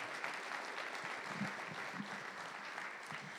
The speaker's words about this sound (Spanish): Dele un buen aplauso al Señor, hermanos.